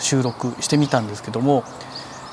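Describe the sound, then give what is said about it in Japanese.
Faint early-morning birdsong chirps softly in the background while a man speaks in the foreground, with a few thin high calls still audible after he pauses; recorded around 4:30 a.m. with an H3VR recorder placed on a balcony. “今回は、まあ、早朝ね朝4時半ぐらいにねあのこの H3VR をねベランダのところに置いてこの鳥の鳴き声とかがね入っているこの音声をね”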